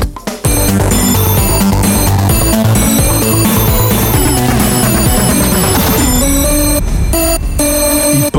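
A school bell rings loudly and without a break for about eight seconds, a dense, clanging wash of bright, shifting tones with no voices.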